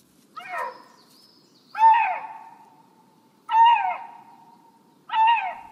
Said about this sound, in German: Wenn Sie solche Töne auf einer Wanderung durch die Jurahöhen hören, haben Sie großes Glück. Das sind die Balzrufe eines Luchses, wobei man nicht vom Rufen, sondern vom Singen des Luchses spricht.